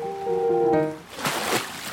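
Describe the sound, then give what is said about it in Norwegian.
A short, drawn-out tonal squeak, then a couple of wet sloshes and splashes as someone steps slowly out into shallow, cold water. “Jeg går litt ut i vannet.”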